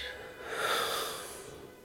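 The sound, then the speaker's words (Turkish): A single slow, deep exhale during a guided relaxation breathing exercise rushes out in an airy, hissing swell that builds and then fades over about two seconds, with no talking. “Nefes al.”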